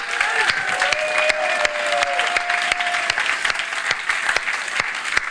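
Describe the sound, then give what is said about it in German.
Loud, sustained audience applause with dense clapping filling the whole stretch, a few whistles cutting through the steady roar of hands. “einen riesen schallenden Applaus geben.”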